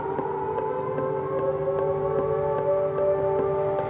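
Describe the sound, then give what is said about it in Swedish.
An air raid siren in Kyiv, Ukraine wails steadily, its sustained tones holding for the whole stretch over a constant low background rumble, with no one speaking. “berättar att fyra stycken tunnelbanestationer inte kommer att användas av tåg och kan därför brukas som skyddsrum istället när invånarna hör flyglarm.”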